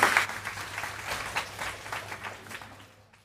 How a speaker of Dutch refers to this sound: Ik wil graag een heel warm applaus vragen voor Anlin Hamelink.